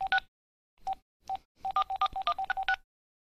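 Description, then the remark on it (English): Touch-tone beeps of the Mystic Access Audio Catalog phone number being dialed: a few spaced tones, then a quick run of about ten more, clear with no talking. “the catalog is a phone number that you will call”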